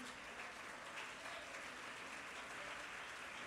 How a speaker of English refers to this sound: Come on, young people, jump to your feet, clap your hands, and say, Thank you, Pastor, for teaching us and preaching us the truth.